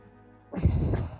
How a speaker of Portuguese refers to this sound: Eu é quando nós respiramos profundamente, quando nós fazemos aquela respiração profunda,